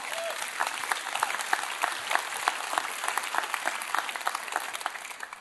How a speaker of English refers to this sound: yeah, let's cheer. Come on, come on.